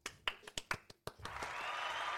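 A few small, sharp hand claps in an uneven rhythm, followed by a softer, continuous patter of light applause that carries on to the end.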